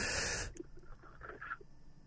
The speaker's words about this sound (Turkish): Koydum. Derin bir nefes alıyoruz.